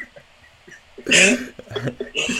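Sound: hiccup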